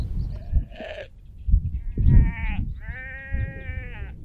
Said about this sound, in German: Über uns die Möwen und dann sind da natürlich noch die Schafe. Viele Schafe.